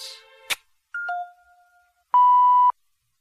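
A soft chime and a click, then a descending two-note electronic ding-dong, followed by a loud, steady page-turn signal beep from a children's picture-book read-along recording, lasting about half a second, all alone with no voices.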